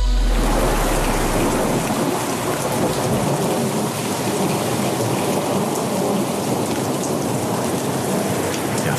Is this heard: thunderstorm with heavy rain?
yes